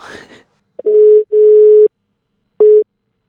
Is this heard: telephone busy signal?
yes